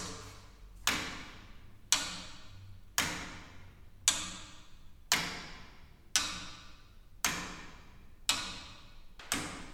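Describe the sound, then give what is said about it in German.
Steady, evenly spaced ticks from a pendulum clock's anchor escapement, about one per second, each a sharp click with a brief ringing decay, heard alone without any talking. “Und das sind dann, das ist dann das System, was man auch in den meisten großen Pendeluhren findet.”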